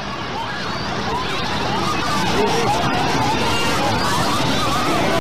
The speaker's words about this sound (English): Here it is, just like normal, ambient New York City noise, crowd. And you can sort of hear people screaming. It's like a wave.